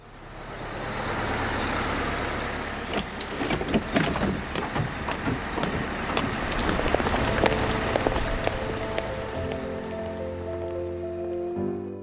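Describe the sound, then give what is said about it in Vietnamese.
A village bus rolls up amid steady, rain-like hiss, with sharp bursts of air-brake release and clatter, then settles into a low, humming engine idle. No one speaks. “Chàng trai xuống xe buýt làng và vội vã bước vào lối ga tàu điện ngầm.”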